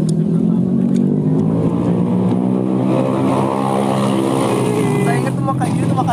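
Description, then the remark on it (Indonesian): A motorcycle engine drones steadily and fairly loudly throughout, its pitch rising and wavering as it revs slightly toward the end, with muffled voices faintly underneath. “jelas setengah jam isinya suara motor enggak ini ada backsoundnya backsound motor ini”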